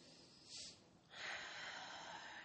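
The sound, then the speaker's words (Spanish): A person takes a short airy intake of breath, then a long, steady, rushing exhale, fairly soft, with no voices, as part of a guided breathing exercise. “y libera a través de la exhalación, inhala y exhala.”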